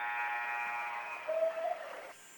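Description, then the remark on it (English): A basketball game buzzer sounds one long, harsh, steady blast that holds for about two seconds before cutting off, leaving faint background hum, ending the first half of a game between the Hermon DeKalb Green Demons and the Heuvelton Bulldogs after a missed shot at the buzzer. “Heuvelton, Weston, top of the arc, got a shoot, does it the buzzer, no good.”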